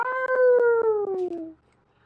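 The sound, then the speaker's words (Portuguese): A single loud dog howl, a long wavering tone that slides gradually downward for about a second and a half before cutting off into quiet, with no talking. “Tô ouvindo esse cachorro uivando, tá me incomodando.”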